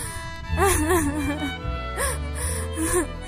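A child whimpers and cries in short, wavering sobs, one drawn-out whine followed by two briefer quivering cries, moderately loud over a low steady hum.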